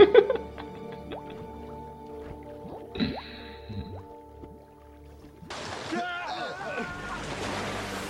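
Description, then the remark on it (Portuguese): A sudden, fairly loud splash as a person is thrown and plunges into the sea, followed by ongoing churning, bubbling water. Before it come scattered drips and squishy wet sounds over a steady low hum. “Pronto, jogou o cara na água e morreu, já era.”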